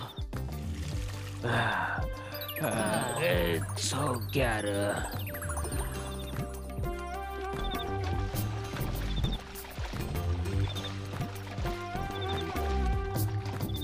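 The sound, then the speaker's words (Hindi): Water splashes and pours continuously, sloshing as it is drawn up from a well and tipped out, with a voice counting briefly early on and a steady background bed throughout. “पर हिम्मत मत हारो चलो पानी खींचो”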